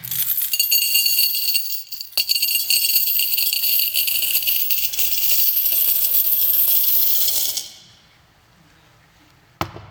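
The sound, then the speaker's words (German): A long, dense cascade of coins pouring and clinking together, a bright metallic jingle sustained for several seconds before it cuts off, followed by a single sharp clink near the end. “Also anders gesagt, mit Geldregen. Ja? Was diese Geschichte überhaupt in Gang bringt, ist dieses Geräusch.”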